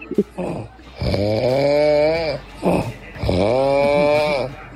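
A man snores loudly and close up, two long rattling, tonal snores each preceded by a short breathy inhale, with no talking.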